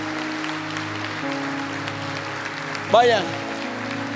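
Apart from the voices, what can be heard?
audience applause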